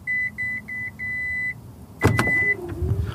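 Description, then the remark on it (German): Four steady electronic beeps sound in quick succession, then a sharp latch clunk with another beep, followed by the smooth hum of an electric motor as the powered tailgate of a Korean test car begins to open, triggered by standing behind the car for three seconds without pressing the key button. “Bei unserem Testwagen lässt sich die Heckklappe elektrisch öffnen und dafür musst du nicht mal nach dem Knopf auf dem Schlüssel suchen.”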